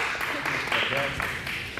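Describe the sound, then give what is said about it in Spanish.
A crowd claps steadily in a dense, continuous wash of applause welcoming arriving guests, with cheering voices mixed in, fairly loud throughout the short stretch. “¡Denle un aplauso, bienvenidos!”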